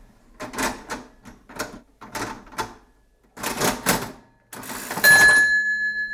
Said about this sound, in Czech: Ze strany obchodníka byla na pokladně spousta čudlíků s čísly, páčky, klika a šuplík. To se, eh, to se vždycky tou kličkou jako dojelo k té částce. Takže tohle jsou deseti koruny, jednotlivé koruny, deseti haléře a haléře.